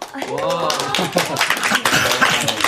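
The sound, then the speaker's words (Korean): A group claps steadily for a few seconds in honour of an elderly woman, a dense, ragged patter of many hands, while people talk and laugh over the applause. “아, 아유, 여기 뭐 박수까지.”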